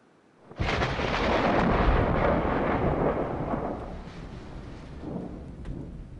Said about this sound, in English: The sound of thunder may indicate divine intervention or anger.